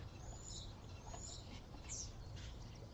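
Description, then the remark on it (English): A bird flying overhead chirps a few times, short thin high calls spaced about a second apart, fairly faint over a steady low outdoor rumble, with no one talking. “Like just now that bird that flew over yes. you know and that little that it did like”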